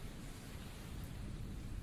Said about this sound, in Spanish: Mientras la lluvia cada vez más intensa le moja la cabeza calva y el cuello arrugado